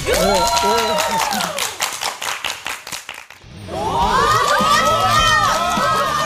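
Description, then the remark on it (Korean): A large audience bursts into loud cheering and shouting, with rapid clapping running through the middle, applauding to welcome a speaker's talk, then the crowd swells again with excited yells. “지금부터 박수로 청해 듣도록 하겠습니다.”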